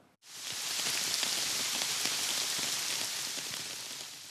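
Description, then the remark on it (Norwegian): Steady rain patters densely onto a hard surface, a continuous hiss broken by scattered droplet taps, starting abruptly and holding even throughout with no voices. “Mye regn og mildvær så langt i vinter gjør at strømprisene er lave.”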